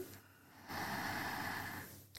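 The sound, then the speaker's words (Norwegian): A single long, steady, clear inhale through the nose during a guided breathing exercise, rising in loudness and holding for over a second before stopping. No talking. “Pust inn.”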